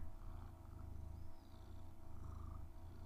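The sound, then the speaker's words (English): A female cat lying over a laptop and microphone purrs steadily and loudly, a low rumbling vibration pulsing in a continuous rhythm with faint breathy cycles, with no talking. “And I, every time I, can you hear her purring?”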